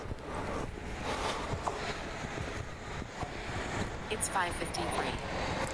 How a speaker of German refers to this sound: Und da kommt die U-Bahn.